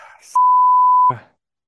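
A loud, steady censor bleep lasting under a second cuts sharply across a profanity in speech, with brief clipped bits of a man's voice just before and after it.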